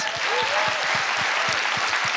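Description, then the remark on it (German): A crowd in a church claps steadily and loudly, a dense wash of many hands with some stronger individual claps standing out in a rough rhythm, sustained throughout. “Ich will mal kurz an dieser Stelle euch bitten, gebt mal all denen, die da so offen und ehrlich von ihrem, von ihrem Struggle mit Pornografie erzählt haben, einen dicken, fetten Applaus.”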